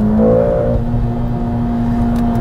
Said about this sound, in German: Und der Motor? Naja, der schiebt einfach nur an, bis der manuellen Modus bei 7000 Touren abrupt die Begrenzer landet.